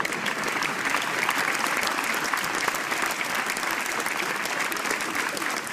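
Sustained applause from an audience, dense and steady clapping filling the whole stretch at a fairly loud, even level, with no voices standing out.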